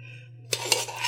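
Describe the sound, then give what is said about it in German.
A spoon scrapes and clinks through a very tough, thick spread inside a lidded container, a short burst of sticky stirring noise with a couple of sharper taps, over a low steady hum. “Ich habe jetzt einen Löffel genommen, das ist so zäh, das Zeug.”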